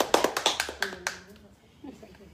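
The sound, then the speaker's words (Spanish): Brief applause for participants who all answered well: roughly eight sharp, uneven hand claps over about a second, tapering off into quiet, with a faint murmur of a voice afterward. “Todos, todos contestaron muy bien. Aplausos.”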